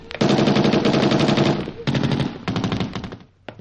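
Rapid bursts of automatic gunfire fired at people, loud and dense, in three main volleys separated by short pauses, ending with a single faint shot after a brief lull.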